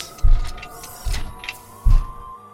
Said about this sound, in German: Die Ladeklappe des Raumschiffs geht auf. Man hört ein dumpfes Stapfen, aus diesem obsidianfarbenen Weltraumgefährt